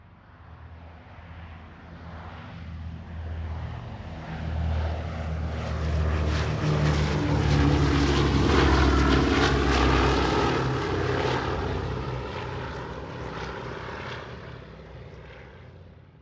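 A propeller airplane drones overhead as planes drop thousands of leaflets announcing the end of the war. Its engine rumble swells steadily to a loud peak mid-pass before gradually fading away, with no voices present.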